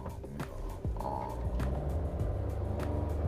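Steady low engine rumble and road noise from inside a moving car, recorded while driving as a microphone test, with occasional soft clicks and thumps over the continuous drone.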